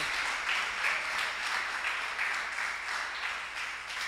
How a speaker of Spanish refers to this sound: Denle un aplauso al rey.